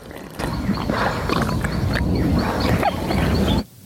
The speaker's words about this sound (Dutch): Ja, het was Baby Yoda. Die in aflevering 4 eh, van de Mandalorian soep staat te slurpen.